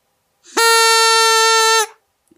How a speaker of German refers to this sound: Ich finde, ich, ich mag die Tröte. Ich mag die Tröte.